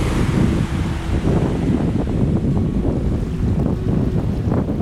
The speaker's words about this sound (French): la plage où je suis s'appelle Del Monte Beach. Et en fait, c'est une plage immense qu'on peut euh, rejoindre à pied. On peut même aller jusqu'à Santa Cruz, faire toute la baie de Monterrey. Je vais vous laisser écouter le bruit des vagues.